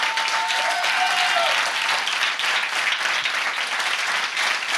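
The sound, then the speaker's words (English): An audience at a church sermon, urged by the preacher to clap, breaks into loud, sustained applause, many hands clapping together in a dense, steady wash that holds at full strength for several seconds without any speech. “Clap like you believe you have a good shepherd.”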